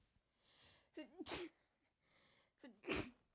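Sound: quiet sneeze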